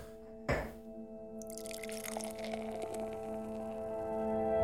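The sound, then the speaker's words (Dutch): A sharp click as a bottle of La Trappe blond beer is opened, followed by a steady, rising rush of beer pouring into a glass, fizzing and gurgling as it fills. Fairly quiet, with no voices. “We gaan hem zelfs eventjes openmaken. En inschenken vooral.”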